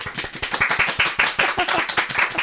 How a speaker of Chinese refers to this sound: 鼓掌。